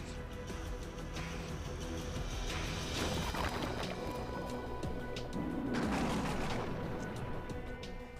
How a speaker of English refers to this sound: lightning strikes the chemical soup at the right place and the right time. Billions of volts of electricity trigger a chain of improbable coincidences.